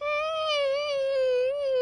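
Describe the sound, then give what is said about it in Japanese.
A person imitates a puppy's whimper with one long, steady, high-pitched whining tone that wavers slightly, close and fairly loud, with no other sounds around it. “みたいな子犬の声出ましたけども、それ以来ぶりでしたね。”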